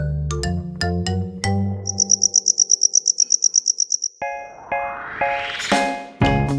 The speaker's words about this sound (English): The English word cricket comes from an old French word, criquet. That's what people thought it sounded like when a cricket was singing. Criquet, criquet, criquet. That's how crickets got their name.